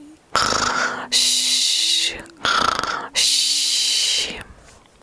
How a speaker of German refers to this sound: recht bald hörte man jedoch eine andere Art Melodie. Das deutliche Schnarchen